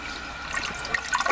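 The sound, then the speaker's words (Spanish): A toilet flushing in a chigre (cider bar) in Avilés: a steady hiss of rushing water with brighter gurgling splashes building toward the end of the short burst. No voices are heard. “Tira bien, bien, tira bien. No necesitamos fontanero Está grabado.”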